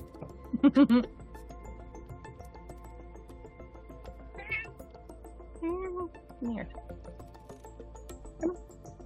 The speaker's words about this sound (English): I thought someone was using a soundboard. it's an actual cat. It's Shadow.